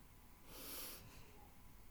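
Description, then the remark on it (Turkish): A single deep breath, an airy rushing sound that swells and fades over about half a second, with quiet background noise before and after and no talking. “Derin bir nefes aldık.”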